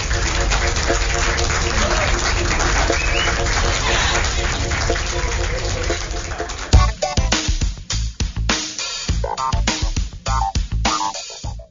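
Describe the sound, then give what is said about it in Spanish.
A dense, steady wash of audience applause, a strong round given as a good-luck send-off on the radio show Las Nenas sin desperdicios, lasts several seconds, then gives way to choppier, broken bursts of sound with short gaps between them. “Démosles con un fuerte aplauso la patadita de la suerte.”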